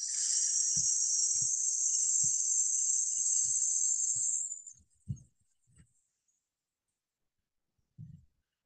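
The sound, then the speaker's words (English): A long, steady hissing breath pushed out slowly through the mouth during a guided breathing exercise, lasting about four seconds, fairly loud, then tapering off into quiet with a few soft, low thumps. “And exhale, we're going to slowly through the mouth, making a hissing noise. So, very similar to letting air out of a tire.”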